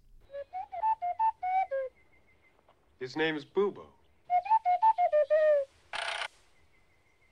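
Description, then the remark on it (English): Short, pure tones from a small ocarina, played by a musician as the voice of Bubo the owl for a 1981 film score, imitate an owl's call in two quick bursts of stepping, hooting notes. A brief line of speech falls between them, and a short hissy burst follows near the end. “And he brought out this little ocarina and he did these little tones.”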